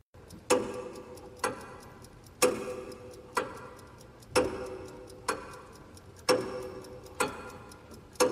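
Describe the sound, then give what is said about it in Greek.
A clock ticks steadily in a Greek election ad by Fotis Kouvelis's Democratic Left party (DIMAR), saying it is DIMAR time, with sharp, resonant ticks about once per second alternating slightly in tone, each ringing briefly before the next; no voices are heard. “Η Δημάρ του Φώτη Κουβέλη, που έχει πάει καλά στι πρώτε εκλογέ, δείχνει ένα ρολόι λέγοντα ότι είναι ώρα Δημάρ.”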